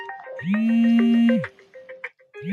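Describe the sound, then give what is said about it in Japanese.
A telephone ringtone plays loudly, a sustained electronic tone with a bright repeating melodic pattern on top, starting again near the end, from a phone that has rung many times; no one speaks. “あの、ちょっと電話がえらい何回もなるけん、一回やめていいはい。”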